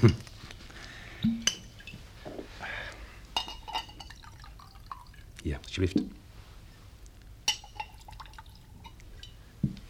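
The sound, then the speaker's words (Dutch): Sherry trickles and drips into glasses, with a few light clinks of glassware and scattered soft knocks, while a voice speaks briefly over it. “Zullen we een uh, sherrytje vooraf nemen?”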